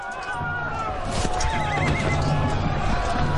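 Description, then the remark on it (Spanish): The horse of one of the Orsini, who watches from it, whinnies in the middle of a busy, noisy scene, with hooves clopping along underneath and a constant wash of background commotion. “Uno de los Orsini observa desde su caballo.”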